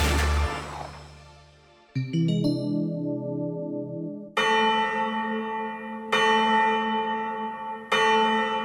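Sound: church bell ringing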